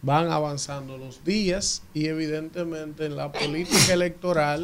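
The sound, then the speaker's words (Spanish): A single quick sneeze bursts out near the end while a man keeps speaking steadily. It is brief and sharp, partly overlapping his talk. “Salud. Salud.”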